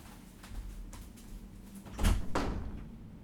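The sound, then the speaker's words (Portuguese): A door is opened, with a couple of soft knocks and a louder thump of the latch and frame around the middle, followed by a fainter clunk. No one speaks. “Deixa eu abrir a porta e ver se melhora.”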